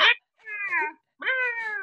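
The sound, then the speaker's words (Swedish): A person mimics the bleating of sheep and lambs let out in the countryside: a short clipped call, then two longer, quavering baa sounds with brief pauses between, loud with no other sounds. “bor på landet har det ganska jobbigt nu, för nu har fåren släppts ut med sina hundra lamm. Så hela natten i natt så bara”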